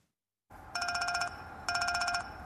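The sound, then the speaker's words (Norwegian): A mobile phone ringtone sounds in two bursts of quick, bright, pulsing electronic tones, separated by a short pause, clear over a faint steady hum. “Dingsen som lager denne lyden, mobiltelefon, påvirker mange unge mennesker negativt.”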